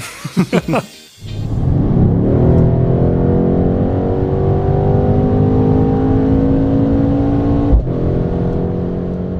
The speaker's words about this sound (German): Wie das klingt, wenn man auf der Autobahn mal durchbeschleunigt, das habe ich aufgenommen und das spielen wir jetzt einmal ein.